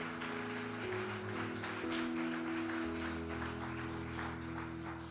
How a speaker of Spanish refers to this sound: Si tú lo crees, dale fuerte la aplauso al Rey de Reyes.